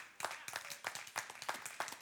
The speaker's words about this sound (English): So everybody clap, and I'm going to tell you what you're really clapping for.